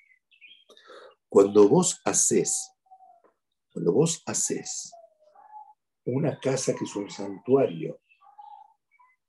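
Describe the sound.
Faint, sporadic bird chirps sound in the background, mostly in the pauses, while a man speaks steadily in the foreground.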